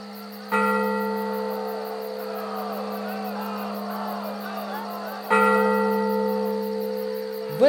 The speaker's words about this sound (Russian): Убийство решено начать в 3 часа ночи по сигналу колокола во Дворце правосудия.